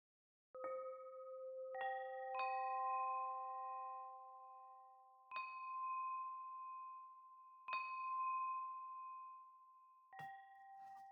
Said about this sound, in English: At nine o'clock sharp, stillness began in the Lombardi household. Enough of the chaotic movement of talented children and tutors and overly involved Leonardo and his wife. At nine o'clock, there rang a bell.